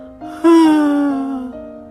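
big yawn

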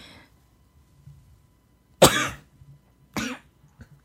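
sneeze

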